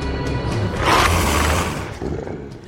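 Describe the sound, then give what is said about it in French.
A huge wolf sniffs loudly, savouring the smell of a coming feast, a deep, breathy snuffling that swells in the middle, carried over a low rumbling growl, with no voices. “l'énorme loup renifle, savourant l'odeur du festin à venir.”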